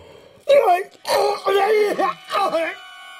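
A man holding his stomach cries out in pain after breathing through an inhalation mask: four loud, strained, wavering vocal bursts in quick succession, then the sound breaks off into near silence.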